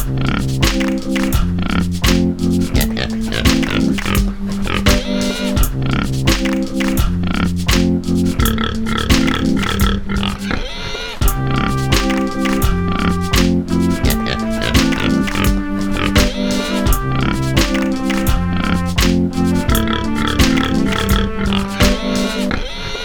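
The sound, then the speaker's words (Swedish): A pig grunts and oinks in quick repeated bursts while being fed, over a steady, tonal, music-like backdrop, filling the whole stretch at a fairly loud, even level. “Nu börjar mata grisen.”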